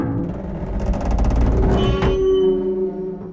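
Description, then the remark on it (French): Sheet metal being crumpled as source material for recreating a dinosaur cry, a dense run of loud crackling and scraping with metallic ringing tones that linger, and a sharp crunch near the end. “Prenons ensuite un son de tôle froissée”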